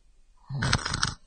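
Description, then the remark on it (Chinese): A single snore, voiced by a person imitating an old grandmother snoring in a warm bed during a story reading, lasting under a second: a rough, breathy snort with a low rumble at the start, alone against near silence. “在那张床上，有一位老奶奶，一个打呼噜的老奶奶。”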